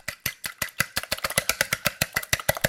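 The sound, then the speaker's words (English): Rapid, steady clicking of a whisk beating an egg against a bowl, about twenty quick strokes that speed up slightly, clear with no talking. “That's uh, beating an egg. Whisking, whisking an egg.”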